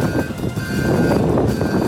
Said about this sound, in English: Oh, I hate the wind. I hate these loud ass cars going by.